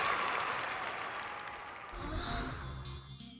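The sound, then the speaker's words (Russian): An added ovation applause sound effect: dense, rapid clapping from many hands forming a steady crackling wash, joined partway through by a fuller, lower crowd rumble before easing slightly at the end. “Надо, надо добавить звук овации.”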